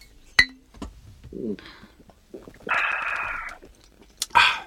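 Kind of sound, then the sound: household object, glasses clinking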